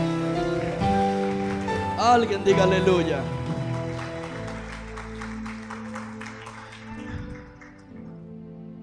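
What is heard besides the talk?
audience applauding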